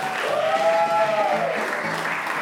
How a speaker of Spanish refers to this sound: Un aplauso para el profesor de comedia.